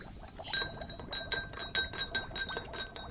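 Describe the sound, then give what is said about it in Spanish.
A spoon stirs half a spoonful of coffee into water in a glass, clinking steadily against the sides in a quick, repeated rhythm of bright, ringing taps over a soft background hiss, with no one talking. “En el vaso 2 añadiremos la mitad de cuchara de café y comenzaremos a revolver.”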